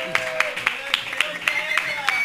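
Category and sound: crowd, applause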